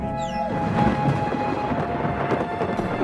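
A low, sustained rumble of thunder with lightning, seemingly over Taiping Mountain, rolls on for a few seconds, steady and fairly loud, with a brief higher whistling tone near the start and no voices.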